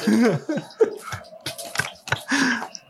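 Chewing a crunchy omelet: sharp crunchy bites, irregular and fairly loud, mixed with wet mouth sounds and a few brief hums between crunches.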